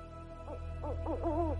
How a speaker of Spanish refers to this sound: Los búhos y otros animales de la noche rompen el silencio.